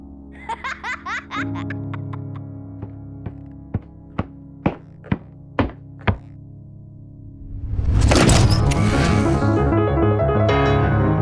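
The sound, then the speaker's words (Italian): A run of about a dozen sharp, evenly spaced taps gives way to a door opening with a loud, sustained rattling, scraping noise that fills the last few seconds, with no voices. “Sentendo il rumore della porta aprirsi, la donna toglie il cappello dalla testa del bambino”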